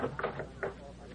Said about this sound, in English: Graham McNamee had just about given up hope of finding a successor when one day there was a knock on his office door.